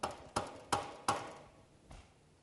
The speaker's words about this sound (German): Und auf einmal hört er ein Klopfen